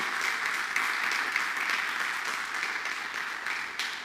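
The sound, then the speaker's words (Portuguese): An audience applauds God steadily, a dense, even crackle of many hands clapping that holds at a constant level for the whole four seconds, with no voices standing out. “Dá um aplauso a Deus por isso.”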